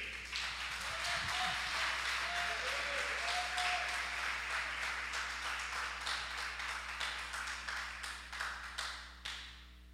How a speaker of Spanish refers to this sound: Denle un aplauso al rey.